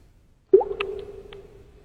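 A single water drop falls with a clear plop at about half a second, followed by a ringing tone and a few faint bright ticks that fade out slowly over the next second.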